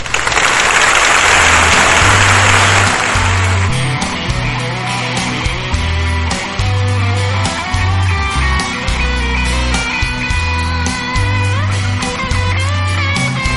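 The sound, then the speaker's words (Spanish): A burst of dense, hissy clapping from a crowd at the close of a radio programme fills the first few seconds, then gives way to music with a steady, pulsing bass line and bright melodic notes. “Un aplauso.”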